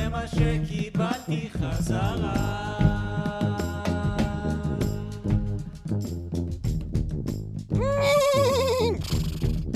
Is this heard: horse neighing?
yes